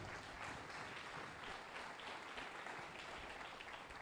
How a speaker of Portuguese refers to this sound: Aplaude ele, por isso aplaude.